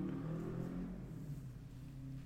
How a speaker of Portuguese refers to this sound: Está bem, tu e a tua mota, tu e a tua mota, não sei se só viu, mas passou ali uma moto. Pronto, eu ouvi. Preferia não ter ouvido.